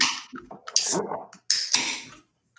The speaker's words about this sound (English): let's crack a brew. it! So, the first beer we're going with today, we have the Pencil Thin Lager from Wellington Brewery.